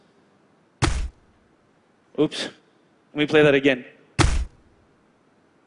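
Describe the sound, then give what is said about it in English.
Two sharp, heavy thwacks of a knife stabbing into a cabbage, mimicking punches, separated by a few seconds, with a man speaking briefly between them. “That's often done by sticking a knife in vegetables, usually cabbage.”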